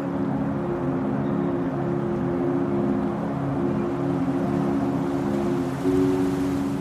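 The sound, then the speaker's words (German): Steady, continuous rushing of sea water at moderate volume, underlaid by soft trickling, with a low droning hum running underneath throughout and no voices. “Leises Rieseln untermalt das Wasserrauschen, das du noch immer vom Meer hörst, und löst es irgendwann ab.”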